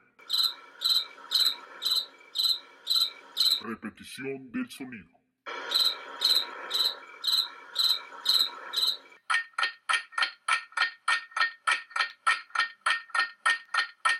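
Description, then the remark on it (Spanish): A cricket chirps loudly in steady, rhythmic bursts, pauses briefly while someone says a short phrase, then resumes with a quicker run of sharp pulses. “El grillo, claro que sí, ese chirrido o canto es principal y característico de un grillo.”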